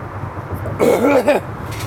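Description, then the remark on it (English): A single raspy throat clearing with a short cough, rough and voiced, lasting about half a second over a low background hum. “Makes you want to clear your throat.”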